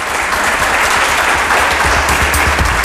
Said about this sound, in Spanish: Espera, pero no les, no les habéis aplaudido nada, ¿eh?